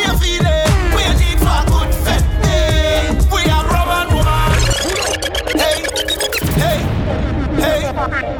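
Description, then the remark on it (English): An upbeat Miami anthem song intro plays loud, with punchy percussive hits and bright layered tones, then shifts to a sustained wash of synth chords partway through. “kick it off with the Miami anthem for the Wasi one.”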